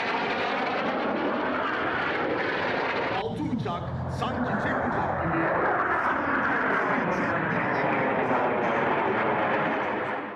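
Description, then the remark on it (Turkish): A loud, continuous roar of Turkish Air Force jets of the Turkish Stars aerobatic team performing an air show display overhead, the engine noise sweeping and shifting in pitch as the planes maneuver, with a brief sharper burst partway through. “Usta pilotların kontrolündeki jetler gökyüzünde dans etti.”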